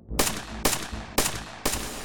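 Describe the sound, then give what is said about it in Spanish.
Four loud rifle shots ring out at a steady pace, about half a second apart, each a sharp crack followed by a booming echo that rolls away before the next: a rifle volley fired at a prison guard inside a penitentiary, the shots echoing through the whole prison. “Antes de apretar el gatillo, recibe una descarga de fusil y cae muerto.”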